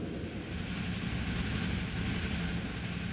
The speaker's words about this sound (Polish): Pociąg wjeżdża właśnie do Hanoweru. To mniej więcej połowa drogi.